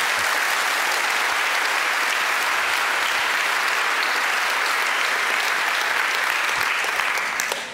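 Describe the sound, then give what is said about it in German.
Steady, dense audience applause lasting several seconds, a bright crackle of many hands clapping at an even, loud level before tapering off slightly at the end. “Das müssen wir kurz mit einem Applaus und bestärken.”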